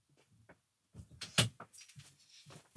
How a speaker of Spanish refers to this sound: Vamos a abrir la puerta.